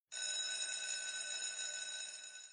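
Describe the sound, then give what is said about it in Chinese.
A school bell for the start of class rings in one sustained, bright metallic clang, loud and steady for about two and a half seconds with no voices, starting abruptly and trailing off slightly at the end. “随着上课铃声响起，原本喧嚣的教室再次安静下来。”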